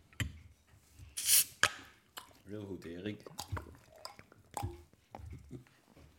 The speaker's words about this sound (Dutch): Dus ik zou zeggen, proost allemaal. we maken lekker een biertje los en dan gaan we zo beginnen.